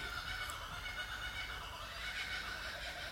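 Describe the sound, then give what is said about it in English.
A kookaburra's laughing call, a raucous, rolling cackle that carries on steadily for a few seconds, with no one speaking over it. “You hear even the kookies think that's funny.”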